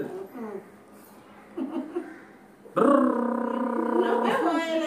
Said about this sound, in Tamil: இந்த mixie grinder அந்த அம்மி ஆட்டுக்கள்லாம் கூட பரவாயில்லன்னு சொல்லுவேன் அம்மி ஆட்டுகள் எவ்வளவோ பரவாயில்ல அட்லீஸ்ட் அந்த இதுவா இருக்காது கஷ்டம் சத்தம் வந்தாலும் இதுவா இருக்காது